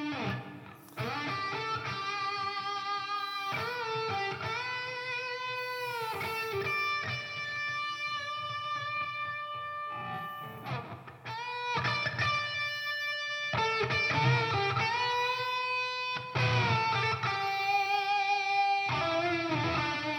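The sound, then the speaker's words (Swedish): Distorted electric guitar solo plays alone for about twenty seconds: long sustained, bending lead notes with a rich buzzing tone, broken by brief pauses between phrases, steady and fairly loud. “alla predikningar blir bättre med ett gitarrsolo mitt i på något sätt.”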